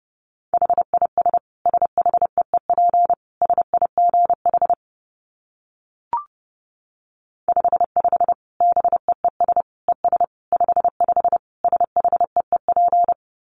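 Rapid Morse code at about 30 words per minute: a steady mid-pitched tone keyed into quick dots and dashes, in two bursts separated by a short pause with a faint click.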